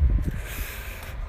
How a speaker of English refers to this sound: Oh, that's what that noise is. I was trying. I was confused because there was like a loud noise, and I just realized that it's obviously the the John Deere. it's it's the giant deer that I was just describing.